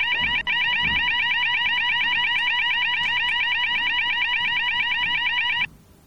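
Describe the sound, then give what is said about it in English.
A loud, steady electronic fire alarm blares continuously for several seconds with a rapid pulsing warble, interrupting a talk, briefly cutting out once near the start, then stopping abruptly. “But imagine you were in Lamkau Mao School and there really was a fire alarm.”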